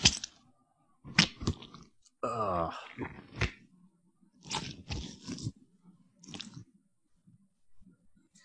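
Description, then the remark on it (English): Wet squishing and squirting foley: a run of sloppy, crunchy squelches and short spurts in irregular bursts, fairly loud, with a brief murmured voice at the start. “This sound is called squish and squirt.”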